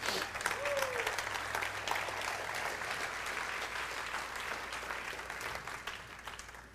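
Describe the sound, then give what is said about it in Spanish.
An audience breaks into steady, sustained applause for the Lord, a dense wash of many hands clapping that holds fairly even for several seconds before thinning slightly at the end, with no talking over it. “Sin embargo, un aplauso al Señor ahí, sí.”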